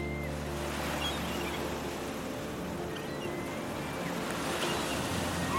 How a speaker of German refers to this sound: spüre den seichten Wind auf meiner Haut, den nassen Sand unter meinen Füßen und sehe die schäumende Brandung vor meinem inneren Auge